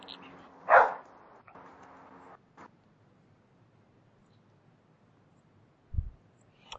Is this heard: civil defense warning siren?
no